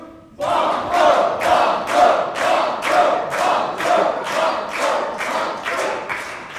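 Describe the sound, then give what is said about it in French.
A studio audience at a quiz game shouts the word "Banco" together over and over in a steady, rapid rhythm, about a dozen loud chanted bursts. “Alors là, c'est le cri du cœur.”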